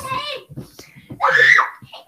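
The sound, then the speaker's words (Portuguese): Children's voices shout and squeal, high-pitched and excited, with a loud rising cry near the end over a burst of overlapping chatter. “Gente, eu tô falando no microfone, por favor, parem de gritar.”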